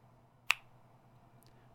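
A single sharp, crisp finger snap rings out, followed by quiet with only a low steady hum in the background.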